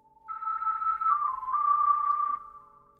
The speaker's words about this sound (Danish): Sådan her lyder det for eksempel, når man spiller på en gulerod.